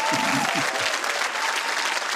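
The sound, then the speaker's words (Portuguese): A crowd claps steadily in dense, continuous applause, fairly loud, with a brief murmur of voices underneath at the start. “Uma salva de palmas para a Telma Bicho.”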